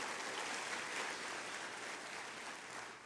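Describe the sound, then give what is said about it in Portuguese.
After a prayer, an audience applauds for Jesus, a dense wash of many hands clapping at once that holds an even, loud level throughout before easing slightly at the end. “Se você crê na sua oração, dá uma forte salva de palmas para Jesus.”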